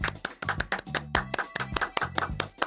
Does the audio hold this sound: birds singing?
no